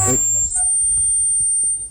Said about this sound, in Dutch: Ja, eh, het is weer zover. De storing op de telefoon.